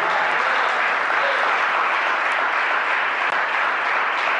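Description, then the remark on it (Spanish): An audience at a church service claps hands as an offering of applause to God, in sustained, dense applause, a steady loud wash of many overlapping claps with no pauses for the full length. “¿Cuánto le dan una ofrenda de palmas, Rey de Gloria?”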